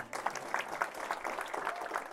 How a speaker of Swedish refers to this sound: Ge henne en applåd, det behöver hon.